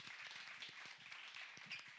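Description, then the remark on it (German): A crowd applauds steadily, many hands clapping in a dense, continuous patter at moderate loudness, with no voices standing out. “Genau, Applaus.”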